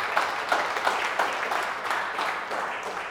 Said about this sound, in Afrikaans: Kom ons klap ons hande en gee hom net 'n applaus